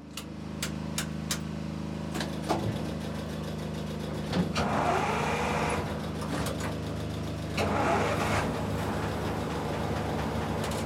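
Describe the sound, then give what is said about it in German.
The engine of an old captured Russian infantry fighting vehicle, being repaired by Ukrainian soldiers in the courtyard of a former car workshop in Izium, Ukraine, clatters and catches, settling into a loud, steady low rumble, then surges twice in rough revs before dropping back to idle. “Der Motor springt an und der Soldat mit dem Decknamen Nemetz, was übersetzt Deutscher bedeutet, ist glücklich.”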